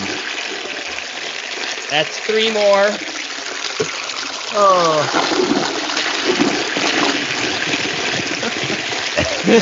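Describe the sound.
A toilet flushing with a steady rushing, gurgling wash of water that runs the whole time, while people talk and react over it.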